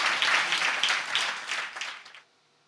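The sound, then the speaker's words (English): A crowd claps and cheers together in a dense, steady burst of applause that tapers off and stops after about two seconds, leaving near silence. “Shout and clap like you believe what I'm teaching you.”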